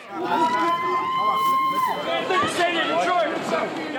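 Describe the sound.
A crowd of supporters waiting for former Detroit Mayor Kwame Kilpatrick as he walks free from county jail cheers and shouts over one another in a dense, continuous babble of many voices, with a sustained high whistle-like cry rising above the noise early on.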